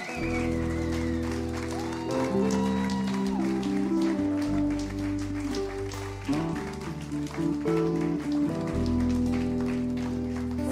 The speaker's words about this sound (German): Und jetzt bitte ich euch einfach um einen herzlichen Applaus für die mutigen Leute und sie mit mir hier auf der Bühne zu begrüßen.